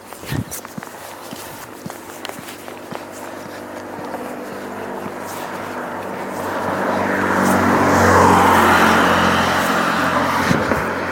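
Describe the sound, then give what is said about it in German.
Footsteps crunch along at first, then a car approaches on a street in Bardolino in February, its engine and tyre noise swelling to a peak before easing off as it passes by. “Auto oh, kommt auch gleich vorbei. Dann warte ich mal.”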